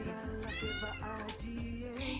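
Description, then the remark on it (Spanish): A female cat named Julia meows loudly, letting out several drawn-out, rising and falling meows in quick succession, with no one talking over it. “Pausa porque voy a sacar a mi gata Julia.”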